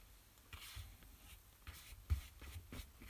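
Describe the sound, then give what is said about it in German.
Soft, scratchy brushing strokes of a paintbrush applying paint to paper, a series of short swishes with irregular rhythm, fairly quiet with no voices. “Also, ich male jetzt gerade nicht meine Gerte an, sondern ich male Papier an”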